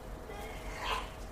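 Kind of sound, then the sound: human body sound, sneeze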